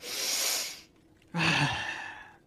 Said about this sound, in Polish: Taki głęboki oddech biorę.